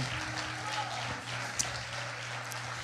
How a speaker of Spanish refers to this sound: Aplaudele al Señor con todo lo que tienes. Aleluya.